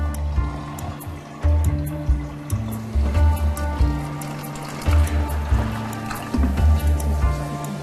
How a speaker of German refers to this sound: ebenfalls Auszubildender im dritten Lehrjahr, vermengt die Erde mit einem exakt abgemessenen Liter Wasser.